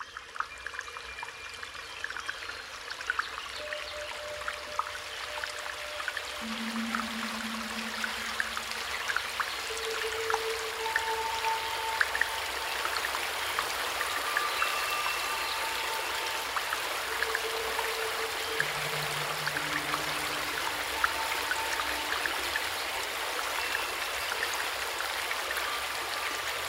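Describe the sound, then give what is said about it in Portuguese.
Water flows steadily in a garden pond, a continuous rushing trickle that stays even throughout, with a few soft sustained tones drifting over it and no voices. “O artista faz um movimento de maestro, como se regesse as águas.”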